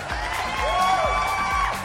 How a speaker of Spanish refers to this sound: Aplausos.